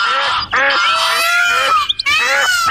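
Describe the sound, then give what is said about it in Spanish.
Hundreds of birds squabbling loudly, with harsh, overlapping honking squawks in a dense, continuous chorus that breaks off only briefly. There is no talking. “Había cientos de pájaros en su cabello y no paraban de discutir.”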